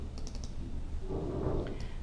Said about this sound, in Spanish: Hago doble clic encima del botón.